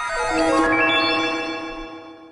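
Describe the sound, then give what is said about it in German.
An electronic airport announcement gong chime, played before every announcement, rings out with layered, sustained tonal notes that swell and slowly fade over a couple of seconds, sounding airy and slightly otherworldly, with no voices. “denn äh, der Gong, der auf Child Go vor jeder Ansage läuft, der klingt so, ich habe dir den mitgebracht.”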